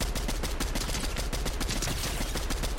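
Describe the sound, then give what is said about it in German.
Rapid bursts of video game gunfire crackle continuously, dense and loud, with repeated sharp shots layered in quick succession and no voices present. “Ja, ich treffe die, Schü die, Schüsse, die Schüsse treffe ich immer noch gut.”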